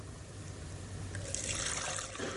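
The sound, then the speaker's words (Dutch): Water is poured through a clean bottle: it trickles and splashes steadily, a continuous pouring sound with bright, hissing spatter that grows a little fuller midway through. No one speaks. “komt schoon water, zie je dat?”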